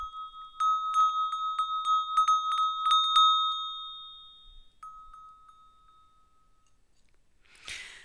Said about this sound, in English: It was some t- Tibetan Nepalese bell that I got. It's very cool. It's made out of copper and it's it's pretty cool, handmade.